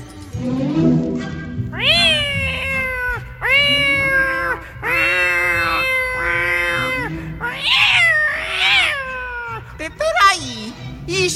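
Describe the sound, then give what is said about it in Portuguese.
Several drawn-out meows from Mimi, a pet cat, loud, come one after another in a plaintive series, some rising into strained, wailing cries near the end. “é miado de gato.”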